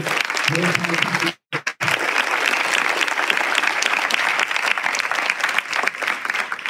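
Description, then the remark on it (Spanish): An audience breaks into sustained, dense applause for Jesus, loud and steady throughout, with a brief pause near the start before the clapping surges back and continues. “¿Cuánto le damos un aplauso a nuestro buen Jesús?”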